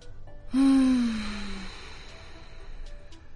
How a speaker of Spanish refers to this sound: Y bueno, la primera etapa del mindfulness es realmente esto, tomarse un momento, respirar profundo.